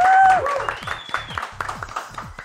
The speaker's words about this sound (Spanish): Así que estamos, quiero ver esos aplausos con Yo Soy Polo.